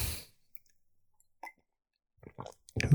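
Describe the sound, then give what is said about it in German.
Someone takes a sip of water: a soft slurp, then a short pause and a cluster of faint gulping and wet mouth clicks, with no talking. “So, ähm, ein Schluck Kaffee, gefolgt von einem Schluck Wasser.”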